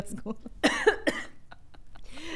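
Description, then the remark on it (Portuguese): Harsh, sputtering coughs from someone choking on water: two strong bursts near the middle, trailed by smaller gasping coughs and throat noises, fairly loud against a quiet background. “Gente, a água entrou errada.”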